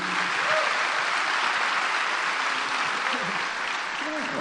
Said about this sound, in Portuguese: Vamos aplaudir, receber bem o curitibano.